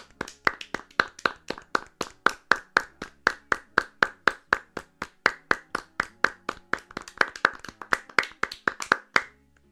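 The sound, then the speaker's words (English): A big Norwegian crowd claps together in perfect sync, a steady rhythmic beat of sharp, loud claps at roughly four per second, continuing evenly for about ten seconds with no talking. “And then at one point, they all begin clapping totally in unison.”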